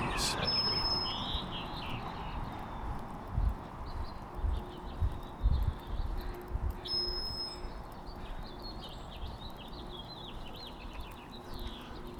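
Scattered high bird chirps and short tweets ring out over a steady low outdoor rumble, with some soft thumping sounds underneath.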